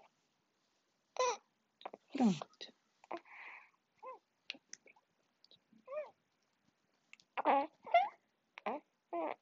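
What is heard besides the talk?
baby babbling and cooing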